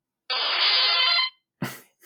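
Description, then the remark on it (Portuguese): A harsh, buzzy electronic chirp lasting about a second, a retro 8-bit Pokémon cry in the old first-generation style, heard when a Pokémon is sent out, followed by a short noisy burst with a thump. “Coisas deste género, que era tal e qual como na, na primeira geração, ou assim.”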